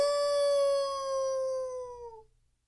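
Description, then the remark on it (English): A single long wolf howl, clear, holding a steady high pitch before sliding slightly downward and fading out after about two seconds. No voices are present. “It, it sounds like a wolf.”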